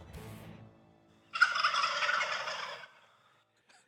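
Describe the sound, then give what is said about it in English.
A loud, rattling burst of gobbling from several birds roosting directly overhead, recorded on a cell phone in the dark of early morning, lasting about a second and a half after a quieter warbling call, then fading into silence. No one speaks. “a lot of birds, and they wow. were they were roosting right above me, and they pitched down.”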